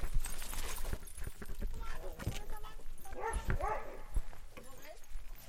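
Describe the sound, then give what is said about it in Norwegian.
Several dogs bark and yip in short, overlapping bursts throughout at Bergen hundebarnehage, a dog daycare in Bergen, on a Monday, with some whimpering, amid busy background noise and a person talking. “Jeg har eh, drevet Bergen hundebarnehage nå i eh, fire år til eh, nyåret.”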